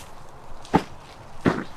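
Two distinct footsteps land a little under a second apart, fairly soft, as someone carrying a heavy plant root ball steps over into a garden bed to plant it, with quiet ambience around them and no talking.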